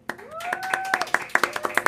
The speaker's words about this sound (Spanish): Un aplauso, por favor, la gente del público.